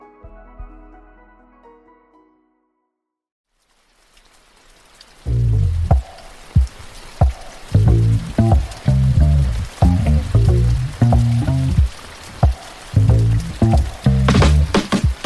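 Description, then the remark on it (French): A short musical phrase fades to silence, then heavy rain comes in, a dense, steady wash of noise with irregular drips and splashes and a deep, rumbling low end. “Aujourd'hui, il pleut des cordes”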